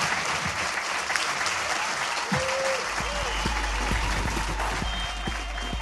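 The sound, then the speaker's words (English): A live audience gives sustained applause for guest Rosie Jones at the end of the show, a dense wash of many hands clapping at steady volume throughout, with occasional cheers and whoops rising from the crowd in the middle. “Uh, ladies and gentlemen, please give it up for the amazing Rosie Jones.”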